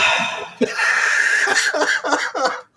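A person coughs several times in close succession, rough and raspy, fairly loud with short gaps between the hacking bursts.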